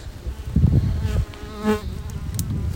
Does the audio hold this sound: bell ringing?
no